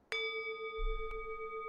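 singing bowl being struck

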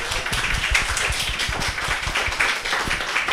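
applause

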